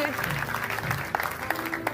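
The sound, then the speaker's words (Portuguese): Audience applause for ten people who have just made the best decision of their lives fills the space, a steady wash of clapping from many hands with a few sharper claps standing out, mixed with voices and a low murmur underneath. “Ei, será que nós podemos dar uma salva de palmas às 10 pessoas que tomaram a melhor decisão das suas vidas?”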